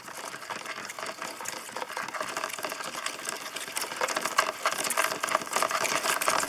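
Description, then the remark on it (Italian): A dense, steady crackle of countless tiny clicks and rustles from a busy Arizona red ant nest, continuous throughout, with no voices; recorded by San Francisco composer and sound artist Richard Lerman. “quello che senti in questo momento è il rumore di un termitaio di formiche rosse dell'Arizona Lo ha registrato Richard Lerman, un compositore e sound artist di San Francisco”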